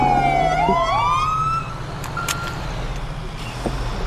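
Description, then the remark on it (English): The siren of a stolen fire truck at Bolingbroke Penitentiary wails upward in a rising sweep, then fades over a steady low engine rumble, with a brief higher tone and faint clatter near the end. “Um, we got a stolen fire truck at Bolingbroke Penitentiary.”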